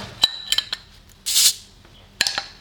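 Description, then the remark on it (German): Glass clinks and rattles, then a short, sharp fizzing hiss as the cap pops off a bottle of malt-based, beer-like alcoholic drink, followed by a few more bright clinks of glass. “Ja, bierhaltiges Verfrischungsgetränk. Okay, dann machen wir auf.”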